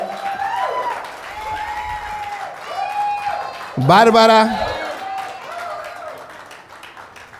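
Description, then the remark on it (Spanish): A church audience applauds steadily beneath sustained musical tones while a voice speaks over it, with a louder vocal burst partway through, welcoming a pastor in training who is about to preach. “Aquí está con nosotros y un fuerte aplauso.”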